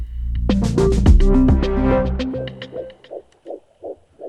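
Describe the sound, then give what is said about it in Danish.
A short melodic jingle fades out, then the heartbeat of an 11-week-old fetus on a doppler monitor takes over as rapid, steady whooshing pulses, about two per second, moderately loud with no talking. “Ja, det vi hører her er jo hjertelyden fra et øh, 11 uger gammelt foster.”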